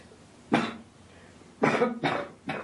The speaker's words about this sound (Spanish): En una habitación, Luca ausculta a Amedee. Tose un poco.